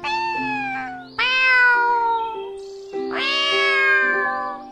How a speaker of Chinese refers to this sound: 嗯，这是谁在叫啊？原来是小猫啊！小猫你好啊！